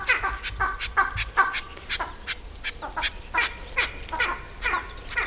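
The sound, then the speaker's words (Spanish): A male and a female eagle trade harsh, cackling calls while circling in the sky to mark their territory, overlapping in quick repeated bursts of raspy, mid-pitched notes, loud and steady over a faint low rumble with no one speaking. Late winter. “son como dos cacareos, el macho y la hembra, y con esta voz lo que hacen, dando vueltas en el cielo, están marcando una raya, es como si estuvieran trazando los límites de un territorio en el suelo.”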